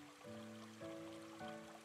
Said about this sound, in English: The water is moving really fast and as it jumps, dances, and splashes along this little stream, you can almost hear it go snap, crackle, and pop.